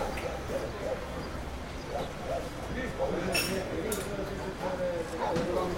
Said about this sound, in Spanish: Estoy esperando aquí, afuera, en una terraza de un café. Escucho la televisión española.